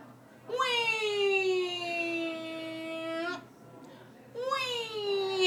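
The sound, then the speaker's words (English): A person's voice imitates the wailing shark alarm of an Australian beach, holding one long, loud, steady tone for about three seconds, then starting a second wail after a brief pause. “Now, if you're in Australia at a beach and you hear that alarm, it means one thing shark, everyone out of the water.”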